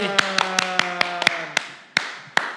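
Sharp hand claps, about ten, quick and uneven at first, then slowing and spreading out, over a sustained musical chord that fades away. No one speaks.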